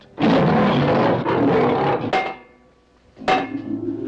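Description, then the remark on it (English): A loud, rough roar of the ghost of a lion in the basement from Thirteen Ghosts rumbles for about two seconds, falls quiet, then a second roar breaks in sharply near the end. No one is talking. “The ghost of a lion in the basement.”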